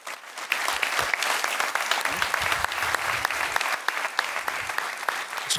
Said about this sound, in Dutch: Mag ik nu een daverend applaus voor de volgende gast